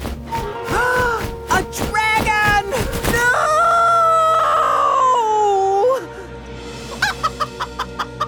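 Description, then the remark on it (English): A small chicken clucks and squawks in a run of loud calls, including a long drawn-out squawk, followed by a few quick, rhythmic bursts like wings flapping as it flies. “Sitting on his buffer was a small, very cute-looking chicken.”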